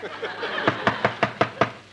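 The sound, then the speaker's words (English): A quick run of about six firm knocks on a door, made by a sound effects man, evenly spaced, following a moment of faint background murmur. “As soon as the sound effect man knocks on the door.”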